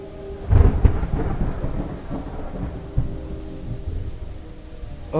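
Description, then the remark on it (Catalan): A thunderstorm rumbles with a loud crack of thunder early on, followed by rolling low booms and a steady wash of rain throughout, with no voices. “Oh, finalment la tempesta ha escampat.”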